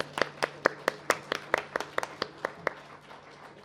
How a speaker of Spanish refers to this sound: Démosle un aplauso a las mamás.